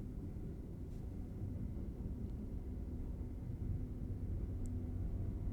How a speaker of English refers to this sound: I think you're getting the sound of the train running behind my house as you as you think through this last question. I live right next to the commuter rail.